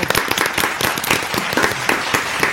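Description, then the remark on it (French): A studio audience on a TV set applauds at the end of the show Grand Jury de l'Immobilier, a dense, steady wash of many hands clapping, sustained and fairly loud throughout with no voices over it. “Applaudissements”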